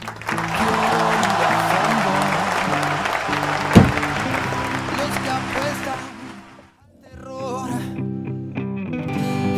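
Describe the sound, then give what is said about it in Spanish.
Loud applause sound effect from an applause button, with a crowd cheering and whooping, a dense steady roar for about six seconds before it abruptly drops away into quieter, different sounds. “Flaco, méteme el botón de aplauso. Hay que hacer. Hay grito y todo, festejo.”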